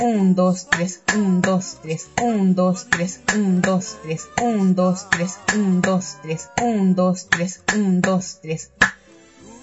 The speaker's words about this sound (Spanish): Las claves como instrumento de percusión ejecutan el patrón rítmico de la clave.